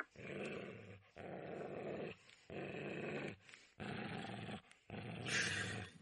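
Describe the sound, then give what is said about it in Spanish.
A dog growls low in five drawn-out, rumbling bursts, each about a second long, separated by brief pauses for breath. No one speaks. The dog, Highball, is on a leash and growls again as it stops in front of a door. “Highball comienza de nuevo a gruñir y se para delante de una puerta.”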